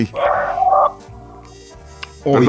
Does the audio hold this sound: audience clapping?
no